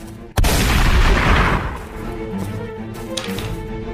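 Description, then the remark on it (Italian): A single loud rifle shot cracks out between two cars near the start, followed by a long booming echo that rolls away over about a second and a half, leaving a low steady background. “Senti esplodere tra le due auto un colpo di fucile.”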